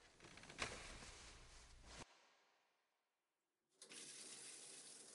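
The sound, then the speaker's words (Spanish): Hot water gushes steadily from a tap or shower, stops abruptly, leaving a fading hiss and a moment of silence, then the stream starts flowing again, loud. “El agua caliente lo revive Quizá el agua lo cura todo como dicen.”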